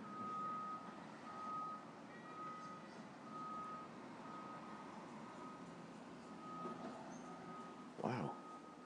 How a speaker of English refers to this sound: Car backing up.